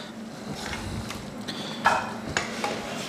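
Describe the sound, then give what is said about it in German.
A light ragout with pork belly and parsley being stirred and tossed in a pan after liver is added, with a steady sizzling hiss and a few sharp scraping clinks of a utensil against the pan, no voices. “Jetzt sehen wir dann und Leber und Nindel noch rein tun, oder? Und durchschwenken.”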